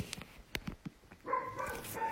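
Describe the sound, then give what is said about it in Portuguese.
A female dog barks repeatedly, guarding her territory: a few short, sharp barks first, then a longer run of higher, whiny yelps. Fairly faint, with no one talking. “Isso é adequado, ela é como a nossa natureza medrosa, ela percebeu alguma coisa e está latindo o tempo todo, mantendo o território.”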